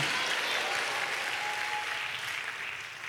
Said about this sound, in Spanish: Y le dan un aplauso a Cristo, hermano. A su nombre, gloria.